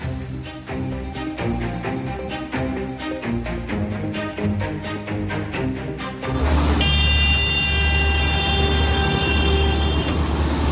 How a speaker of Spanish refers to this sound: La banda sonora de la España agraria vuelve a sonar hoy en las capitales. Escuchas en concreto la marcha de los tractores en Logroño, donde esta mañana medio centenar de vehículos agrícolas han tomado las inmediaciones de Merca, Rioja